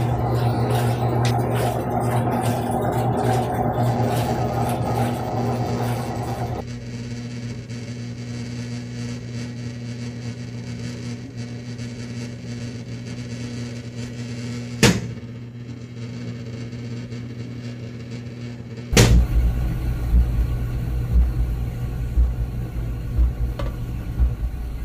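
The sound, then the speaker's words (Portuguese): A computer CPU cooling fan whirs steadily with a low droning hum, easing slightly in loudness early on, interrupted by a couple of sharp knocks as the fan is struck to make it quieter, before the whirring continues. No one speaks. “Ventoinha da CPU do computador que só diminuiu o som apanhando.”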